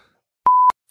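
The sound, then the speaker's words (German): A telephone rings with a single short electronic beep at one steady pitch, clicking on and off sharply. It is fairly loud, with no talking around it. “Bei irgendwen klingelt gerade das Telefon oder ist das hier bei mir die Nachbarin?”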